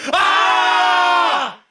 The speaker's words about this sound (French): Crier tous ensemble dans le studio aussi aussi, bien sûr. 3, 2, 1.